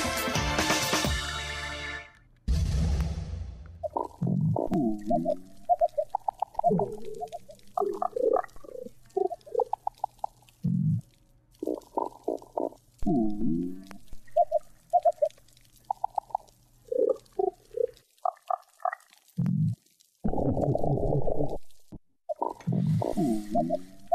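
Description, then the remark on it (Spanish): A recent underwater recording from inside a coral reef in the ocean: fish grunts, croaks and chirps in irregular bursts over a steady background crackle, with a louder rushing burst at the start and no voices. “Bueno, estamos escuchando, me encanta esta grabación, es una grabación reciente del interior de un arrecife de coral en el océano em, eh, y pues los peces, los arrecifes, son una parte importante de nuestra historia sonora.”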